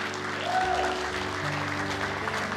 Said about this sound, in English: Come on, put your hands together for the Lord this morning.